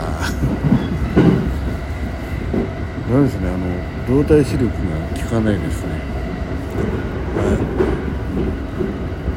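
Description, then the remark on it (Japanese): A train runs steadily along the tracks as it passes through a station, its broad, unbroken rumble filling the whole clip at a fairly loud level, while a man talks and laughs over the noise. “今ね駅を通過してますどこだこれ、えー、動体視力がダメだえー、っとどこだうわ分かんなかった”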